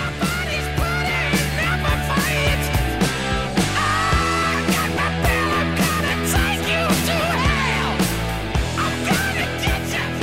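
A hard rock song with electric guitar riffs driving over steady, pounding drums, loud and full throughout with no voices talking.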